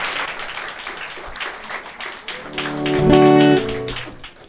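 A crowd applauds a trio, a group of Sungkonghoe University professors, before their celebratory performance, a dense wash of clapping throughout, with a brief sustained pitched tone swelling over it toward the end before the clapping carries on.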